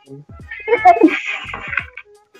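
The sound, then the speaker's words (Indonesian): A voice imitates a baby's whiny, cooing cry: a few short, high, wavering sounds, rising and falling over about two seconds, with a brief pause partway through. “Tidak dulu, dulu jadi suara bayi saya”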